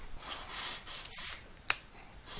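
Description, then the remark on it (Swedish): A warm, lukewarm fizzy drink bottle being opened: airy bursts of hissing fizz, a brief pause, then a sharp little click, with no one talking. “Men eh, jag vet också, eller misstänker också att ni vet att om man tar en flaska som istället är varm, eller fickljummen i alla fall. Om vi öppnar den ska vi se vad som händer.”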